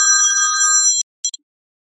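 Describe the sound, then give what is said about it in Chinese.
A telephone rings with an incoming sales call, a bright, steady electronic tone for about a second, then stops abruptly, followed by a brief click and three quick high chirps before silence. No one speaks. “这东西，等一下啊，等一下我接个电话再说。”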